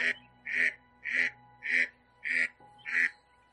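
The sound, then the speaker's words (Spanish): A duck quacks six times in a steady, insistent rhythm, each call loud, harsh and nasal, with a faint background hum between quacks. “Se enojó el pato. Bueno, señor pato, todos tenemos derecho a transitar.”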